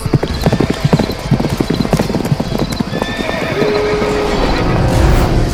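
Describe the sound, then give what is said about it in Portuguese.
Rapid horse hooves clip-clop loudly in a galloping rhythm, while a horse whinnies with a rising tonal cry partway through amid busy, noisy background commotion. “Suba no cavalo! Temos que ir!”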